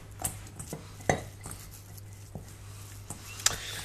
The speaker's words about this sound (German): Wenn wir das jetzt hier schön vermischt haben